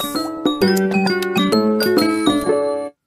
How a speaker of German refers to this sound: Boah, Freunde, was habe ich diesen Sound vermisst, ne? Ist ein also- krasser Jingle. Ist der ist ne? großartig. Stark. Ja, ist großartig. Stark. Ist stark.